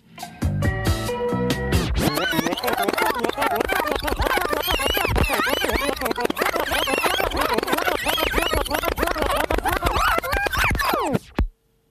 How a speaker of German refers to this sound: Und da ich hier schon alles runtergeredet habe, mache ich einfach mal, was ich bei Dub, bei einem Dub Sound System auf jeden Fall gehören würde. Einen klassischen Rewind.